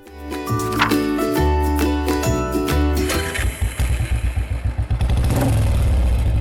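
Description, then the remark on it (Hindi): A motorbike with a TV attached to it, ridden by government school teacher Ashok Lodhi setting out from his home in a small town in Chhattisgarh, chugs in rapid, even pulses, then opens up into a louder, steady roar as it rides off, following a few seconds of tonal, music-like sound. “छत्तीसगढ़ के छोटे से शहर में अशोक लोडी अपने मोटर बाइक पे एक टीवी अटैच करके निकल पड़ते हैं अपने घर से”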